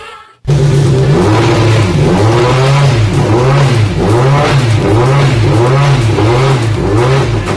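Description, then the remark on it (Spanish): The first hybrid Rally1 rally car, built by Ford M-Sport to the new 2022 regulations, revs loudly, its pitch rising and falling in repeated bursts with a rough, buzzing growl and no voices over it. “Y este es el sonido del primer Rally 1 híbrido que se presenta, construido por Ford M Sport.”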